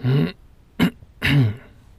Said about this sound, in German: …, du hast keinen Hals, warum räusperst du dich?